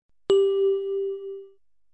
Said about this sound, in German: Bitte sprechen Sie jeweils nach dem Gong.